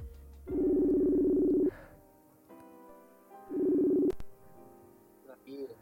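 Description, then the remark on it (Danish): Two long electronic ringback tones, each buzzing steadily for over a second with a gap of silence between, as heard through a phone line while calling a friend and waiting for him to pick up. “Åh, oh, den ringer.”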